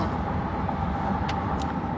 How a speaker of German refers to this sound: Naja, und dann sind wir jetzt ins Auto gestiegen und fahren zum nächsten Ziel.